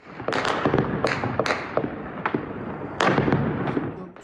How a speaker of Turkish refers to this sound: Ordunun düzenlediği operasyonun ardından isyancı istihbaratçılarla askerler arasında çatışma çıktı. Çatışmalar o kadar şiddetliydi ki silah sesleri başkentin dört bir yanından duyuldu.